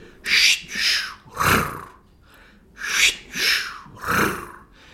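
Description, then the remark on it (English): Sonified deep-sleep brainwaves: six slow, breath-like whooshing swells of slow waves in two sets of three, with a faint purring rumble of sleep spindles riding on top, fairly loud, with no talking. “But then riding on top of them, you get what sounds like a cat purring.”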